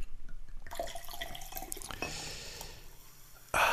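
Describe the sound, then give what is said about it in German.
A drink is poured into a glass without ice in a steady splashing stream, the liquid filling up with bright trickling and gurgling before a louder burst at the end. “So, jetzt das Gläschen voll.”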